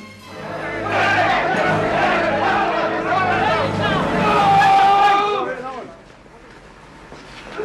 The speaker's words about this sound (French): extrait que vous allez entendre est une scène emblématique du film, celle où Joseph Merrick est pourchassé par une foule dans une gare. Acculé dans des toilettes, il proteste et dit à ses poursuivants Je ne suis pas un animal, je suis un être humain.